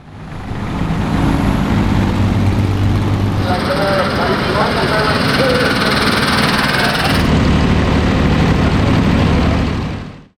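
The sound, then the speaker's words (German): Small Porsche Junior tractor engines chug and rumble loudly and steadily for about ten seconds during a tractor race at the Rennsport Reunion. A rougher, higher-pitched engine note joins in the middle before the low idling throb carries on. “das Traktorrennen, mittlerweile eins der Highlights bei der Rennsport Reunion.”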